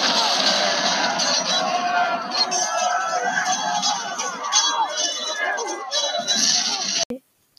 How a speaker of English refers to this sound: The intense screams and loud shouts are terrifying.